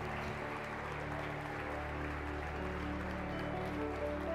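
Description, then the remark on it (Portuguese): A church audience applauds the Lord steadily and loudly throughout, a dense wash of clapping from many hands over a sustained, low keyboard-like drone. “Você pode aplaudir o Senhor por essas vidas?”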